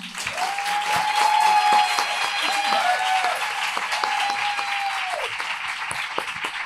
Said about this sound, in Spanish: os pido un fuerte aplauso para su primer día.